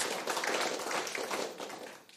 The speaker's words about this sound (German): Ein herzlicher Applaus